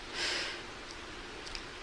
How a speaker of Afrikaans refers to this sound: In die skemering na die skerp son knip knip hy sy oë en snuif.